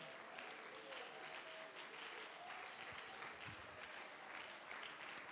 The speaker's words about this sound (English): Uh, now let's clap our hands to the Lord and lift our voices unto God.